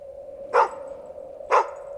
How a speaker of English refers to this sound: And then you start to hear barking. The barking and yowling and yipping of hounds, hunting dogs, right? They have a very specific sound